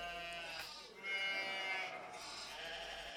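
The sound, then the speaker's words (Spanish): Seven sheep of different crossbred breeds bleat, their wavering, nasal cries overlapping and running almost continuously for a few seconds, with a louder bleat swelling in the middle. “Estas siete ovejas explicó el zagal.”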